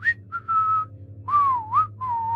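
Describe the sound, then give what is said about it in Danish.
A person whistles the distinctive melody that a murderer whistles in a German horror film, a short tune of sustained and gliding notes, clear, with a low steady hum underneath and no talking. “hvor man hører morderen fløjte øh, den her ja, ja. markante melodi.”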